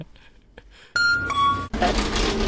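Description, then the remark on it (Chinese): A door opens and shuts: a few soft clicks, then a sudden loud squeal-like tone for under a second, cut off by a burst of broad, rushing noise that holds to the end. “开关门的声音”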